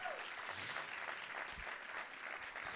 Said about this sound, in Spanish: Vamos a dar un aplauso a alguien que lo crea.